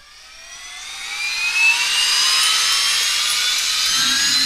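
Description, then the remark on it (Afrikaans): A spaceship taking off, rising higher and higher into the sky: a whooshing engine whine with rising, climbing high tones swells over the first couple of seconds, then holds loud and steady as a low rumble joins near the end. “Jaco kyk hoe die ruimteskip al hoër en hoër in die lug opstyg.”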